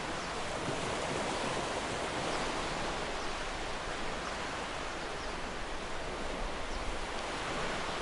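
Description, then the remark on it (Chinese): Ocean waves form a continuous, even hiss of surf with no distinct breaking crashes, holding a steady, moderate loudness throughout, and no voices. “只剩下你和大海。”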